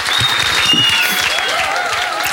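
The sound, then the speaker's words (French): An audience claps steadily and loudly for a guest throughout, a dense continuous patter of many hands, with a faint high whistling tone drifting above it. “Un Applaudissements petit du public, s'il vous plaît.”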